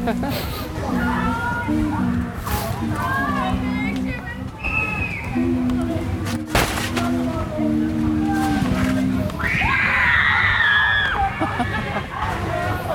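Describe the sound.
A lively outdoor crowd of visitors, including young girls, screaming in the English gardens of a park, with shrill, high-pitched voices rising above the steady hubbub, including a loud squealing burst near the end.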